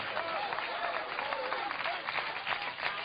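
An audience applauds steadily for the full three seconds, a dense wash of many hands clapping at once, with a few voices calling out underneath, applause offered in praise of God during a worship service.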